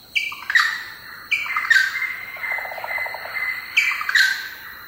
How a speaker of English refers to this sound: And lo and behold, what we heard are two species. One are friar birds, and friarbirds are fairly common in the Pacific. Very lively, very gregarious birds.